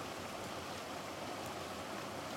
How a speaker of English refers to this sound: um, He's having a good old time. Yeah, he's enjoying the rain. It's, it's nice.